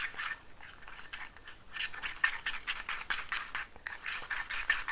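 Chopsticks scrape a plate continuously while stirring natto with raw egg, a rapid, rhythmic, gritty scratching. Nobody speaks.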